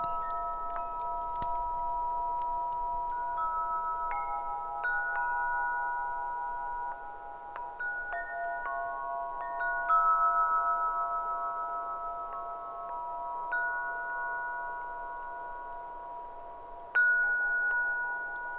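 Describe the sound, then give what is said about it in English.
Several soft metallic meditation chimes strike one after another, their clear sustained tones overlapping and slowly fading, with a final brighter strike near the end ringing out over quiet background noise. “Feeling your breath deepen and listening until the last chime has ended.”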